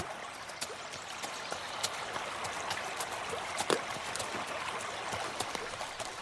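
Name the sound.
flowing river water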